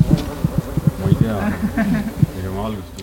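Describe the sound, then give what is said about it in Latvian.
Distant chainsaws whine and rev through a forest in Hāņa nature park in southern Estonia, where forests are being felled; their buzzing pitch rises and falls unevenly, with soft knocks and thuds underneath. “Zābaki grimst meža tehnikas izbraukātās sliedēs, tālumā dzirdamas zāģu skaņas.”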